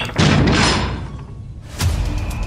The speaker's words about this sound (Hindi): उनके सामने वो भारी भरकम दरवाजा जोर की आवाज के साथ अपने आप बंद हो गया तीनों ने इधर उधर देखा कहीं एक पत्ता भी नहीं हिल रहा था हवा का कोई नामो निशान नहीं था खैर शायद पुराना दरवाजा था हो सकता है सीलन और वजन की वजह से बंद हो गया हो